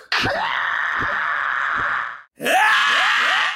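At the start of a theme song, a loud, raw scream is held for about two seconds over heavy thumping beats, breaks off briefly, then a second strained scream bursts in and carries on.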